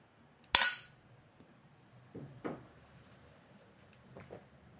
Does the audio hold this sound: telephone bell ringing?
no